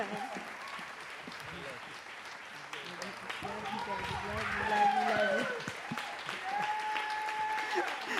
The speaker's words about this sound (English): Will you give a, will you give a clap for my mom? Come on, mom.